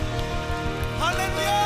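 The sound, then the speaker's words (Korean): An audience applauds to the Lord during a church worship service, a steady, dense patter of many hands continuing throughout over sustained keyboard chords, with a voice rising in pitch in the second half. “믿고 바라시는 만큼 주님께 감사와 영광의 박수 올려드립시다”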